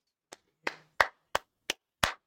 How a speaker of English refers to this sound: Hands up, hand clap for the guests. Great, very great.